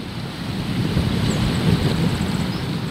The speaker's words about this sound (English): I'm standing on a tall dune near Vega Baja in Puerto Rico's north coast, the ocean stretches out in shades of dark blue, turquoise, and pale aquamarine.